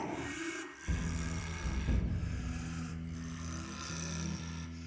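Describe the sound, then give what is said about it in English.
Heavy, even breathing, slow and steady with a low, rumbling rasp that carries on throughout over a constant background hiss. No one speaks. “While he had several loud compatriots in his cell, their breaths had never been this heavy or even.”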